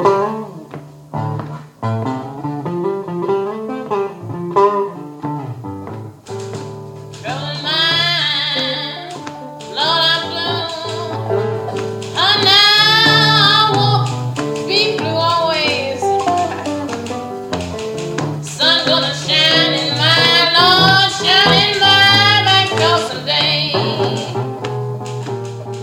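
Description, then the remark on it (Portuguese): A rehearsal recording of a song plays with a prominent singing voice, while irregular mechanical clicks of a typewriter, on which a woman is writing a letter to her mother, tap away faintly in the background throughout. “Ouça uma dessas canções e repare na máquina de escrever ao fundo.”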